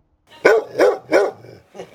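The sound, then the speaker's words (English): A dog named Mickey barks three times in quick, evenly spaced succession, loud, followed by a shorter softer bark after a brief pause. “Mickey, here now, you stop that barking.”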